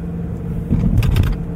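Steady low road rumble from inside a moving car, recorded with a Roland binaural microphone and DR-05X recorder, a continuous engine drone that swells slightly partway through with faint higher tire and wind noise layered on top.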